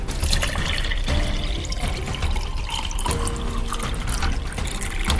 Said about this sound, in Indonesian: Pada saat pelayan menuang air minum ke gelas-gelas mereka, ia memperingatkan sekali lagi akan bahaya sakit perut akibat air yang tercemar.